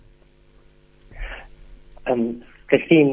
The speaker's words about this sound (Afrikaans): die foon oproep het nou vreeslik opgebreek. Ek het ek het amper nie meer woord gehoor.